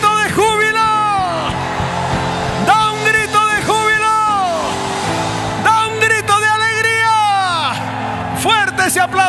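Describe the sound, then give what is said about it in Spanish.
A church audience erupts in loud, sustained shouting and whooping, voices swooping up and down in overlapping cries over a dense wash of crowd noise and clapping. “Dale fuerte ese aplauso. Y da un grito.”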